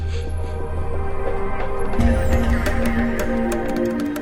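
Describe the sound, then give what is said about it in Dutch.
A steady, low-pitched engine drone and road rumble fill the cabin of a car driving home, with faint clicks and ticks scattered throughout and no one speaking. “Ik zit in de auto terug naar huis.”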